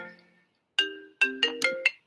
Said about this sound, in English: Yeah, sorry about that. Just got a phone call and I didn't mean to uh, interrupt, but I'm back now.